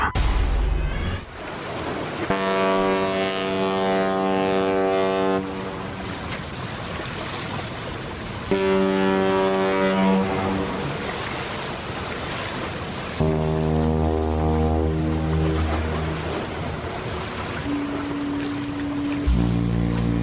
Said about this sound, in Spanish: estamos escuchando eh, sonidos de, barcos, porque nuestra historia sonora de hoy tiene que ver con, pues, con la imagen de, de, barcos.